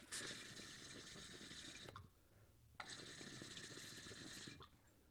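Two steady pulls of water bubbling through the percolator of a new glass pipe that has not yet had a dab taken through it, each lasting almost two seconds with a brief pause between, a loud gurgling hiss with no voices.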